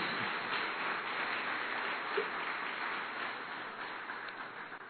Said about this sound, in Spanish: Bueno, amado, vamos a darle un aplauso a nuestro Rey de Reyes y Señor de Señores.